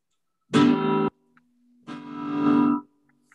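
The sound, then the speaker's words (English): A BCP electric acoustic guitar plugged into an amp strikes two loud, bright strummed chords, the second swelling before it stops, with a low steady hum ringing between them. No one speaks. “This is what an acoustic sounds like when you plug it into an amp.”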